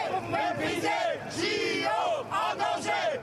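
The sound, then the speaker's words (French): More than 200 police officers march through the streets of Paris on a Wednesday with smoke flares and flags, chanting and shouting in unison, voices rising and falling in loud, repeated swells, with no other sounds standing out. “Fumigènes et drapeaux à la main, plus de 200 policiers ont défilé dans les rues de Paris ce mercredi. À bord de quatre bus à Impérial, ils ont fait entendre leur voix.”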